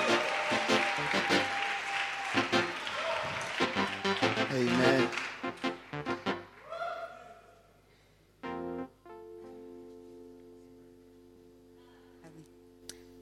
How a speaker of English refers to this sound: Oh, you can do better than that. You can do better than that. Amen. Keep clapping. Keep clapping.